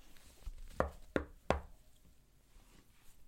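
Three sharp knocks on a door in quick succession, fairly close, followed by quiet room tone with no talking.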